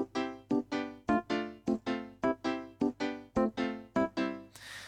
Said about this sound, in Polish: Teraz zagram akord sobie na Yamasze Y, przekieruje dźwięk z Yamaha i też będzie przekierowany dźwięk syntezatora tego Microsoft GS.